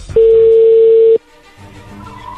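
A steady, loud telephone dial tone of an outgoing phone call holds at one pitch for about a second, then cuts off abruptly, leaving a low, quieter rumble of line noise.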